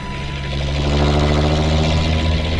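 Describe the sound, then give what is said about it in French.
A coach bus engine drones steadily with a deep, rumbling low end and a rising whir as the coach drives fast through streets, taking bends to the right and left, loud and continuous throughout, with no voices. “L'autocar roule vite. Il attaque les virages à droite, à gauche, il bondit dans les rues.”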